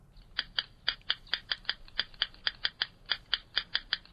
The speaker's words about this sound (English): That is the bird. It's a tiny, elusive marsh dweller that's considered to be one of the hardest of all birds to see. It's the yellow rail